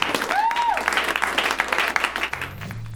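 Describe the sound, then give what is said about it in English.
An audience at a live comedy show breaks into steady applause for the round one contestants, a dense wash of many hands clapping at once, with a brief whistle-like tone cutting through early and a low hum entering near the end. “Big round of applause for all your round one contestants.”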